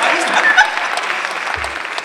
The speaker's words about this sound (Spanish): No sé por qué aplauden por eso.